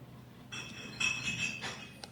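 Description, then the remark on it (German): Quiet glass sounds: a few light clinks and taps with a faint lingering ring, spaced irregularly as four wine glasses are set down and arranged in a set order during a wine tasting. No one speaks. “Vier Gläser stehen jetzt in einer bestimmten Reihenfolge vor ihm und er schreibt die Zahlen auf.”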